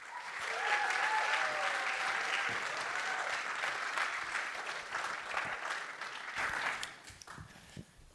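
An audience applauds members of Collectief Schik with steady, dense clapping that swells quickly and holds for several seconds, then thins out and fades near the end, with a few faint voices underneath.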